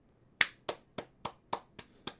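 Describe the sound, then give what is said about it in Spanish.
Seven sharp, crisp claps in a slow, steady rhythm, each a brief bright smack with a quick decay, heard alone without any voices. “Vienen los aplaudidores de nuevo acá, Ciudad Caníbal.”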